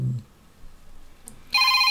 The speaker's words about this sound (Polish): To są dzwonki z e, telefonu Blind Shell Classic.